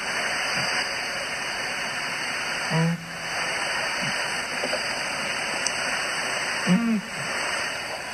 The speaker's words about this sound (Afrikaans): Dan natuurlik ook die visuil die van ons wat gelukkig genoeg al was om in die Okavango rond te reis, ken hierdie verstommende uil, een van die min uile op aarde wat visvang. So klink hy.